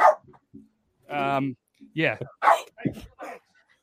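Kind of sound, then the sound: animal, dog barking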